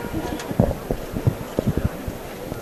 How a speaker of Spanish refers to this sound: Ahora suena el martillo.